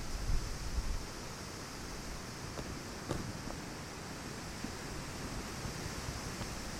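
A dense, continuous rustle of many leaves fluttering in strong wind by the sea, steady and enveloping with a few brief flurries; no one speaks.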